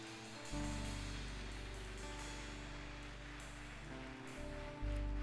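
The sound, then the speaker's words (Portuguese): A church audience applauding the Lord, a dense, steady wash of clapping that holds for several seconds over sustained low keyboard chords, with no voices heard. “Aplauda o Senhor aí, igreja.”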